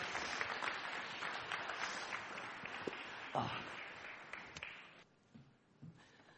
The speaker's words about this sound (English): Uh, so can we have a big round of applause for Mary, everybody? Great stuff, great stuff.